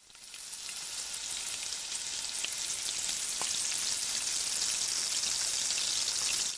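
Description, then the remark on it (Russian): Oil heated in a small saucepan until hot sizzles steadily, a dense, bright hiss with scattered crackles and pops, holding an even level for several seconds with no voices. “После этого нагрейте масло в небольшой кастрюле, пока оно не станет горячим, слегка шипеть.”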